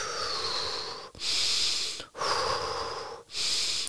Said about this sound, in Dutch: Probeer echt door de neus. En dan, kijk, er is zuurstofschuld, hè, dus je mag, je mag volle bak in door die neus. En dat mag dan met de hoog vlo vloosnelheid en dat mag je horen, ja, want er is nu stress.